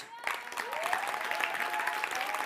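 A crowd breaks into sustained applause, dense clapping filling the whole clip at steady volume, with a faint tonal whistle-like sound gliding underneath.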